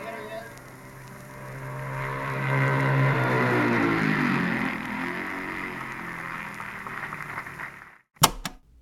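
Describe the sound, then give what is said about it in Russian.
A racing motorcycle on its last lap comes around the bend and screams down the straight toward the grandstand at terrific speed, its engine note swelling to a loud peak and then dropping in pitch as it fades away, before a brief silence and a sharp knock. “There's the flash of his machine as it comes around the bend. He's coming down the straight now at a terrific speed.”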